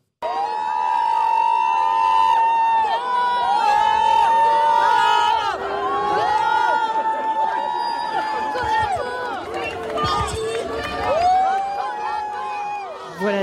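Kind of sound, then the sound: crowd, crowd booing and whistling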